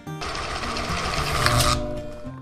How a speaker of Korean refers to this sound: 이 재봉틀 소리만 들립니다.